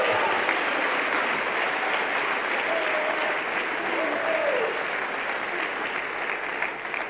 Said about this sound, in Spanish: Alguien puede darle un aplauso a Jesús. Amén.